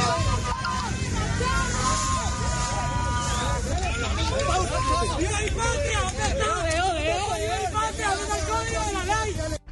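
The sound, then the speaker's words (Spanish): Loud, continuous street commotion from a protest crowd in western Bogotá, Colombia, around 8:30 to 9 at night as National Police disperse protesters with gas and some Molotov bombs, with many voices shouting and wailing over one another amid a dense roar of noise, unbroken throughout. “la presencia de los hombres de la Policía Nacional, quienes con gases y algunas bombas Molotov lograron dispersar a los manifestantes y escuchen ustedes mismos lo que se vivió casi a las 8 y 30 nueve de la noche en este punto del occidente de Bogotá.”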